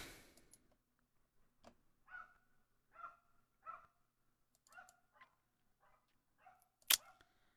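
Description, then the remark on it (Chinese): A dog barks outside in a series of short, faint, irregularly spaced yaps, about eight in all, with a sharp click near the end and no talking. “听到外面的狗叫了没有？”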